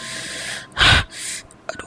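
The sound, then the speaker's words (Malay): A person lying down to sleep in a storeroom suddenly gasps for air, short of breath, in ragged, strained breaths: a long wheezy inhale, one sharp loud gasp, then another heaving breath and a few faint catches, alone. “Aku pun lelapkan mata Tengah syok aku tidur ni cap Aku rasa Tiba-tiba aku rasa sesak nafas”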